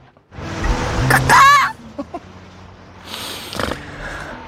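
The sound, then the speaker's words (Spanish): Someone imitates bird calls, a brief burst of wavering, warbling whistled tones mixed with breathy, snort-like sounds, then quieter breathy noises near the end. “Hay una persona imitando ruidos de pájaros, mamá, me quiero ir.”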